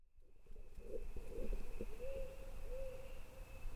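A little blue bird calls repeatedly, giving a run of soft, low cooing notes followed by a couple of longer slurred whistles, over a steady thin high-pitched tone and faint background noise.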